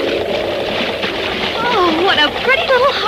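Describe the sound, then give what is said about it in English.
Foaming breakers splash steadily against a sailing boat entering the harbor of Cotabongo into a headwind, off the rugged Mindanao coast, in a loud, continuous wash of water, with faint wavering voice-like tones rising over it toward the end. “watching the foaming breakers toss their spray against the rugged Mindanao coast.”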